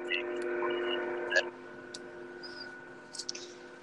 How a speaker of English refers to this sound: Sorry. I hear the train.